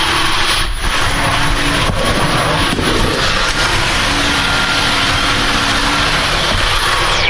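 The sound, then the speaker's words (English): A cordless sweeper runs steadily over a mat, giving a continuous loud whirring drone with a thin high-pitched whine on top and a brushing hiss throughout, no voices. “It's extremely quiet for a cordless sweeper.”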